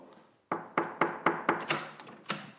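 Someone raps on the wooden door of the editorial director's office at the astronomy magazine Ciel et Espace, a quick series of about seven sharp knocks in a loose rhythm with a short pause before the last one, fairly loud.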